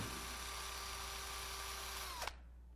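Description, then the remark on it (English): A cordless power drill whirs steadily for about two seconds with a sustained motor tone, then winds down abruptly as it's switched off, leaving near silence. “And God has got to take out the Makita and drill through the ear.”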